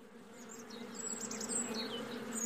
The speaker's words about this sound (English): Near the house they had a small garden where my grandfather kept bees and had a couple of hives.